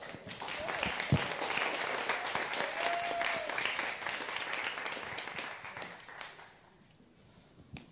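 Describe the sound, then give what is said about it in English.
A crowd at a Christmas celebration applauds steadily for two volunteers coming up to play Living Christmas Trees, the dense patter of many clapping hands holding strong for about six seconds before thinning out and fading into scattered claps. “Come on up and give them a round of applause.”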